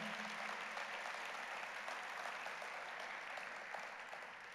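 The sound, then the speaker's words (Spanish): An audience applauds the Lord after worship, clapping together in a steady, dense patter that holds for several seconds and tapers slightly at the end, with no talking over it. “Porque no le damos un aplauso al Señor por esa adoración.”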